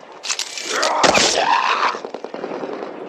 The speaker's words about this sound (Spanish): Ah, porque hay como una guerra. Vez. Mira, están como cagándose tiros.